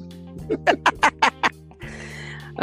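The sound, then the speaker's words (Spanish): A voice does a raspy cartoon-duck imitation, six quick quacks in a steady run, fairly loud over a low steady hum, followed by a soft hiss. “El Pato este, era chévere también.”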